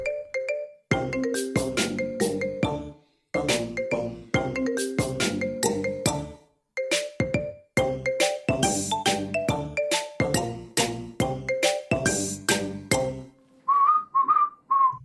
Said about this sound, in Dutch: Dus dit spelen ze nu live en hoort de melodie van Koblo.